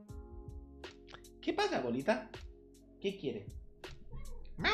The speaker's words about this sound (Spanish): ¿Vosotros la escucháis si dice miau? que la tengo aquí, no, la veis, pero.